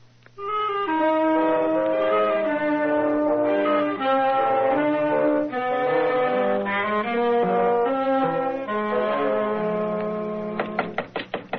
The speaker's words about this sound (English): It was just this day, eight weeks, when he rapped on the office door with this very paper in his hand.